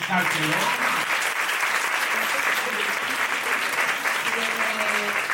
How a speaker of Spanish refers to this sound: una nueva edición de Lo Pongo XXL, una maravilla, un aplauso